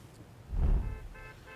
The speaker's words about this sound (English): Workers here at the GM plant hit the picket line just after midnight when their contract officially expired with GM. You can hear some honking horns going by here.